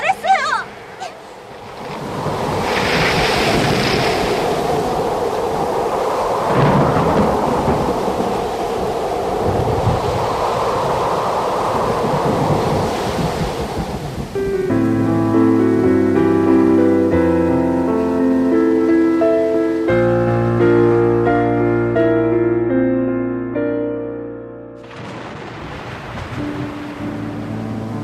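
A violent storm roars with loud, surging wind and heavy rain, swelling and easing in waves for about fourteen seconds before musical tones take over.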